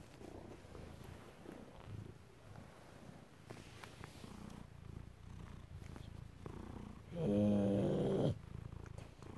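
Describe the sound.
A male cat named Leon purrs steadily in a low, continuous rumble, with a brief louder burst near the end that sounds like a short meow or chirp. A person murmurs once.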